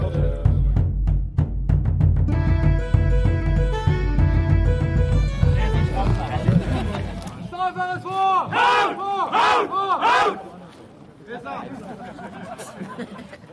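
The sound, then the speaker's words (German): A crowd shouts and cheers together, loud, building into three rhythmic rising "Hurra" cheers in German before the voices fade out at the end. “Hurra! Hurra! Hurra! Wir werden doch gelegentlich Grund zum Jubeln haben.”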